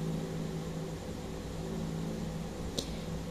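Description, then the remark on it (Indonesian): A steady, low mechanical hum of an electric fan running in a bedroom continues at a constant level, with one brief sharp click near the end; no one speaks. “Ini kalau ada suara yang tidak menyenangkan itu adalah suara kipas angin yang ada di dalam kamar aku.”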